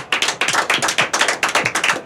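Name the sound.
round of applause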